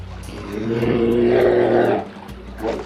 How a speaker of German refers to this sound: Oh. Ja, wow, ne? Also wir wow. wollen mal klären, ein Tier, das diese Geräusche macht, wie gefährlich ist so ein Braunbär eigentlich? Äh, weil ich kann verstehen, dass manche Leute auch ein bisschen Angst davor haben irgendwie, wenn man sowas hört